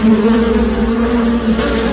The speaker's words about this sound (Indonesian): Itu bukan drum, tapi itu sarang lebah. Oh. Lebah-lebah itu terus mengikuti singa dan mencoba menyengatnya.